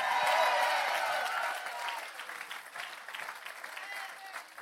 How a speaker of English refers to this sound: Come on, if you're gonna clap, give God a good hand clap today.